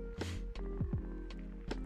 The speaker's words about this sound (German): Ich muss kurz einen Schluck trinken, eine Sekunde. Oh. Oh! Leitungswasser. Geil. Aus der Mischbatterie. Ganz frisch.